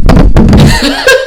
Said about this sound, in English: Um, that was the sound of me dropping my phone onto my mic. Um, a demon did not attack us.